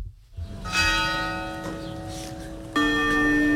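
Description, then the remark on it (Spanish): The bells of the parish church of Nuestra Señora de la Victoria in Morón, Spain, toll with rich, ringing overtones at a funeral before the coffins are carried up the church steps. One strike hangs and slowly decays before a second, louder strike rings out near the end, with no voices present. “Las campanas de la parroquia de Nuestra Señora de la Victoria, ese era el único sonido antes de que los féretros subieran la escalinata de la iglesia, porque aunque la plaza estaba completamente llena, el silencio era absoluto.”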